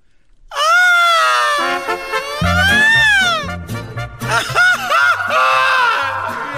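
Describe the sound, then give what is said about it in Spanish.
A man belts out a long, loud Mexican grito, a sustained wavering yell that swoops up and down for several seconds, with low rhythmic tones thumping underneath in the second half. “Ahora Y no, no, a ver, la grito, No, no aguanto, eh, es chorro.”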